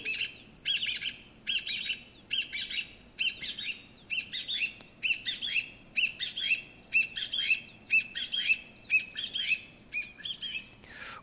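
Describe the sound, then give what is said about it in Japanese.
A Chinese bamboo partridge, a member of the pheasant family, calls loudly and insistently, a rapid series of harsh, repeated two-part notes in a steady rhythm that runs without pause for the whole stretch, with no voices present. “これはですね聞きなし、まあ、人の言葉に置き換えたものを言うとですね、えー、ちょっと来いちょっと来いって言ってるように聞こえるとどうですか皆さんもう一回いきますよねちょっと来いちょっと来い”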